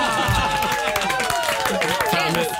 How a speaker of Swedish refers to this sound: Ja, en liten applåd.